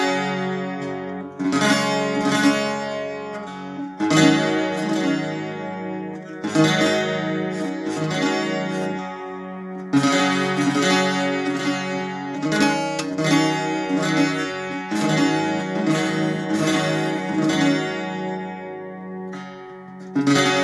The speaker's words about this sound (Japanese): 今聞いていただいた音はですね、アイリッシュブズーキという楽器の音です。これはね、だいおそらく20年前ぐらいに岐阜県蟹市にあるやいりギターという、まあギター屋さんがあるんですけれども、ここに友達と夫と3人で工場見学に行きまして、で、そこで注文して、買って